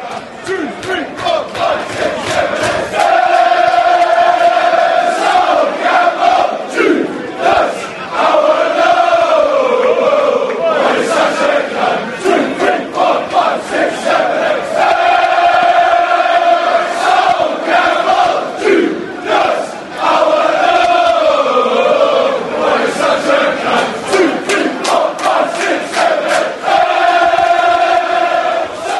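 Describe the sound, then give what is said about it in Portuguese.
A large crowd of Tottenham supporters sings the 'Sol Campbell Judas' chant, a melody the fans created, in unison, loud and sustained, its melody rising and falling in repeated phrases with only brief dips between lines. “melodia criada pela torcida do, do, do Tottenham.”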